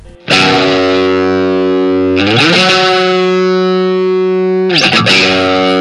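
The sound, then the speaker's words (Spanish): Raw, punk-flavored indie rock: loud, heavily distorted electric guitar chords ring out and sustain, with a fresh strum roughly every two seconds shifting the harmony. No vocals are heard. “A mí me parecen un grupo de, de indie, pero muy crudo, con una actitud muy, muy punk y un sonido muy punky que me mola mogollón.”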